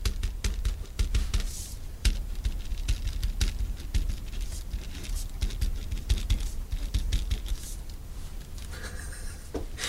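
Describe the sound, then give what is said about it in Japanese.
A three-color ballpoint pen scratches steadily across a sheet of paper with quick irregular strokes and occasional sharp clicks and taps, its blue and red refills rattling inside, as something is written on it; no voices present. “いやいや、そのさ、その何ささささとかいう音ならまだしもな、ボールペンのキャンキャンキャンキャンキャンとかいう音が邪魔でさ、ボールペンの。しかもさ、それ3色ボールペンみたいなの使ってるから、その上の、その管の青とか赤とかの音までするから一緒に。”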